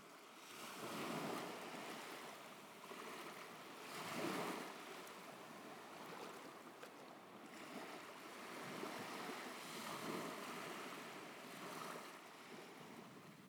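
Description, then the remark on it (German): Ocean waves wash steadily onto a beach, broad surges swelling every few seconds under a constant rush of wind, fairly loud with no voices. “Neben dem Wind sind das vor allem richtig schöne Wellen.”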